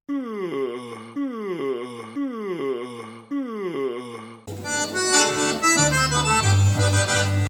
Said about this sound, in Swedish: Att gäspa får fyra av fem ljudeffekter.